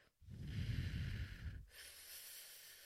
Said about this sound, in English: Another technique is called pursed lips breathing. That's like if you're going to whistle, but just breathing in and out through pursed lips.